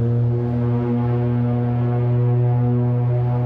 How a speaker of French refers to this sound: Évidemment, c'est beau avoir une lumière, mais la majorité du temps, on est dans brume ici sur le Saint-Laurent. Alors, euh, quand tu vois peu la lumière, ben ils ont mis des signaux sonores. Chaque phare avait des signaux, des cornes de brume.